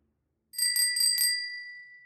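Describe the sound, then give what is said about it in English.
The bell of a new bicycle with two brakes rings in four quick, bright strikes, then its metallic tone lingers and fades. It sounds clear, with no voices or other noise around it. “It's a new bike. It's a good one. It's got two brakes on it.”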